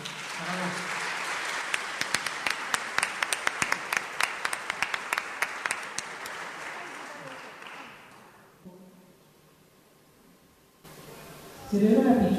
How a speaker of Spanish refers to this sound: aplauso